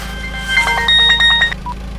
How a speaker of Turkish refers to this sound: Bahçeye girerken çaldı telefonum.